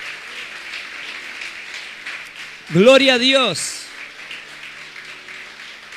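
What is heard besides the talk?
audience applauding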